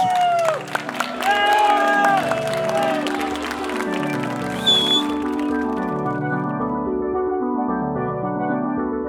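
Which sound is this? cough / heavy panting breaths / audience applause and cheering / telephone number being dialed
audience applause and cheering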